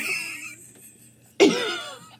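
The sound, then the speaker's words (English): A single abrupt dog bark, loud, with a blunt, raspy quality that sounds almost like a fart, then a quick fade after a moment of quiet background noise. “It does sound like a fart. I'm like, oh wow it was definitely a bark.”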